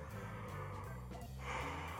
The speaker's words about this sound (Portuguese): Um bocejar, né? Esse bafo, esse ar de dentro, esse bafo é que você vai soltar na gaita.